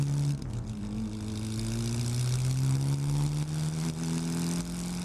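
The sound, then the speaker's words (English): A black sedan's engine drones steadily and loudly, its low hum climbing gradually in pitch as the car accelerates and speeds north toward Bedrock Mountain. No one speaks. “the black sedan sped north towards Bedrock Mountain and the Westcott device.”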